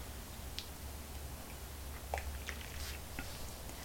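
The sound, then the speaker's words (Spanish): Quiet mouth sounds of someone taking a morning sip of hot, bitter black coffee without sugar, with a few soft wet slurps and small clicks scattered over a low steady hum, no talking. “La jornada empieza con muchos temas que comentarles y para eso necesito primero un sorbito de café amargo y pasar entonces a hablarles de las cuestiones principales de este 9 de enero de 2024.”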